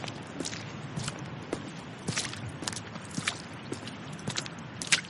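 Steady footsteps walking on concrete, a regular series of sharp scuffing steps at an unhurried pace, fairly close and moderately quiet, with no one speaking.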